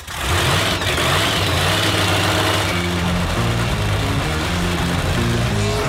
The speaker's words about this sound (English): Start your engines.